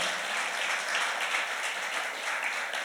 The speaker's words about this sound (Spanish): ese aplauso al Señor.